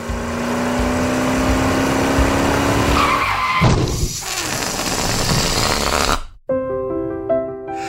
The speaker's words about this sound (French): On promet que je pourrais faire des huit dans le désert, mais la réalité, c'est que je viens de péter un autre pneu dans un nid de poule.